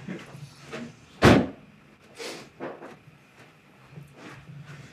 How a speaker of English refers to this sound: You can, but even so, I'm gonna go shut the window sec.